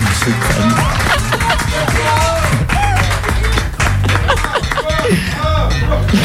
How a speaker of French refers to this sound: Merci à tout le monde d'avoir été. On peut s'applaudir si vous voulez. Allez, on s'applaudit On s'applaudit.